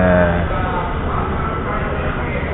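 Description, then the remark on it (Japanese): A quiet maglev train with passengers aboard glides slowly in and slows toward a stop, producing a soft, steady rumble and airy hiss with a faint tonal whine at first, continuous throughout. “おお、意外と静かですね。”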